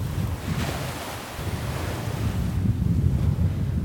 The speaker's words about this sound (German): Von weitem hört man schon das Meer.